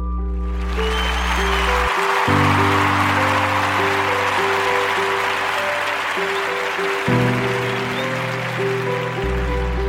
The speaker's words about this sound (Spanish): Por eso estos aplausos van para ti.